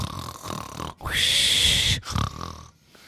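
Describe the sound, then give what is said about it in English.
A voice imitates a boy snoring while fast asleep: a rough, grunting snort, then one loud, sustained whistling breath lasting about a second, bracketed by softer breathy rasps. “And by the time it was time to go to school, he was fast asleep snoring.”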